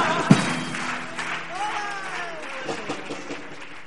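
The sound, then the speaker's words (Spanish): A crowd applauds in a steady, dense patter of clapping, mixed with voices calling out and a rising cheer; one sharp clap stands out near the start. “solo tienes ahora que aplaudir.”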